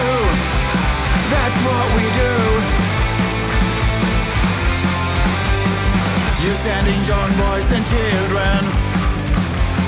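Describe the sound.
A band's recorded song plays loud and continuous, with dense guitars, steady drums and a male vocalist singing and half-shouting over the music throughout.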